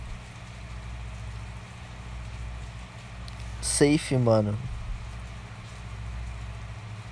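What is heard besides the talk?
heavy road traffic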